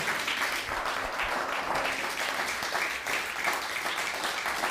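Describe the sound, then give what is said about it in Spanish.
A crowd applauds steadily after a closing prayer, a dense wash of many hands clapping at an even, sustained level for several seconds without pause, with no voices standing out. “Un fuerte aplauso.”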